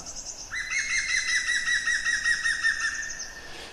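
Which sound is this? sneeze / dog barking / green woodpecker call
green woodpecker call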